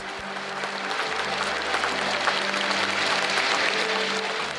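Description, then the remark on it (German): Steady, dense applause from a large audience at a Winnetou stage play on the open-air stage in Elspe, many hands clapping continuously at an even loudness for several seconds, with no voices standing out. “Für Martin Gra ist völlig klar, dass Jean-Marc Birkholz als Winnetou doppelt so viel Applaus bekommen muss wie er als Old Shatterhand.”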